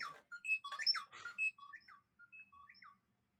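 A mobile phone goes off during a recording, ringing with a bright electronic melody of quick, chirpy high-pitched notes, louder at first and then softer, lasting about three seconds with no talking.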